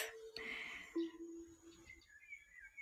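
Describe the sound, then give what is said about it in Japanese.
Quiet, calm ambient background music with sustained soft tones that sound like a suikinkutsu (Japanese water chime), with small bird calls added: birds chirp and twitter faintly in the upper range, with a few brief calls near the end. “これなんですけどね、こういう、なんか、水筋靴みたいな音で、はい。小鳥の鳥さんのね、声も入れてくださって、作ってくださいまして。”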